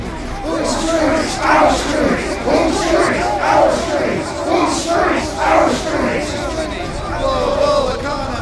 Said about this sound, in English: I passed through a throng of protesters at the crowd control barriers in front of the White House.